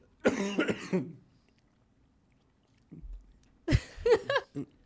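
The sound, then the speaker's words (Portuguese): Someone coughs in two harsh bouts after choking: a quick burst of several coughs, a pause of near silence with a faint throat sound, then another fit of sputtering coughs. “Engasgou?”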